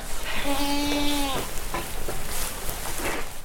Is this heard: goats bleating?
yes